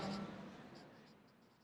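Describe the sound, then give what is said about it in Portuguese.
A pen scratches across a sheet of paper in a series of short, quick strokes as a drawing is made, soft, with faint room noise underneath and no one speaking. “Deixa eu só usar esses, essa folha aqui. Esse desenho você vai fazer na sua folhinha.”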